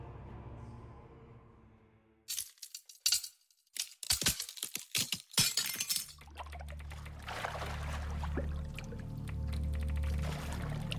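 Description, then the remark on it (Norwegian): A crystal is grabbed and smashed straight down, shattering in a burst of sharp, bright cracks and tinkling fragments, then it is thrown into water with a loud rushing splash that gives way to a steady watery wash with a low hum underneath. “Så du tar tak i krystallen og du bare knuser den bare sånn rett ned, kaster den i.”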